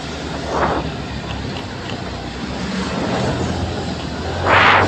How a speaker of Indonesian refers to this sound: ah anjing mobil ugal-ugalan